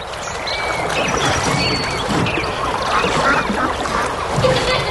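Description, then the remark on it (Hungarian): Ducks quack and chatter continuously on the waterside at Budapart, several birds overlapping in a busy, steady din over a constant wash of waterside background noise, fairly loud throughout with no clear pauses. “Van egy hely, ahol nem az autódban, hanem vízparton ülhetsz órákat, kacsákat és evezősöket nézve.”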